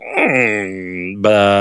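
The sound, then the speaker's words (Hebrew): A voice imitates the three-point shot sound of a computer basketball game: a loud, sustained sung tone that glides down, holds, then jumps up into a brighter held note, one continuous vocal effect with no talking. “מי שבדור שלי זוכר את NBA 1 עם ג'ון סטוקטון בלונדיני, וכשאתה זורק שלשות, אז יש כזה רעש של כזה,”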